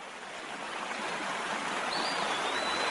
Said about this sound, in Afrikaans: Sjoe, ek het vinnig vloei die water.